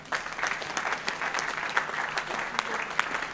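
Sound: audience clapping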